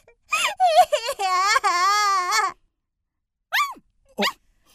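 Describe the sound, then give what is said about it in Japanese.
A puppy called Shippei Taro whines in a long, wavering, high-pitched stretch, then falls silent before letting out two short, rising whimpers. No one speaks. “いやなんだこの犬はああししその犬が疾病太郎だ和尚殿こんな犬が疾病太郎と申されるのかこんな子犬を怪物が恐れているとそうじゃだがただの子犬ではないぞ”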